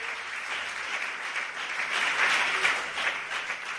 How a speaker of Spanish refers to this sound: Démosle la gloria al Señor. Si ese aplauso es para ese Dios precioso, déselo con el alma.